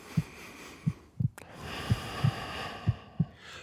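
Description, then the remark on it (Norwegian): A person's own steady heartbeat, heard in a totally soundproofed room, thumps low and muffled in paired beats, each double pulse recurring about once a second, over a soft, continuous rushing hiss. No voices are present. “Du hører hjertet slå.”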